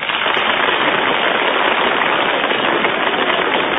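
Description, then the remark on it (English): Steady, loud applause from an audience for number four, a dense crackle of many hands clapping that holds at an even level for about four seconds without any voices. “Your applause only for number four,”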